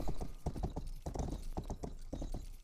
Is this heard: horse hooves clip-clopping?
yes